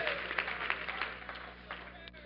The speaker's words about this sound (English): If you agree with that, go ahead, clap your hands as you're seated.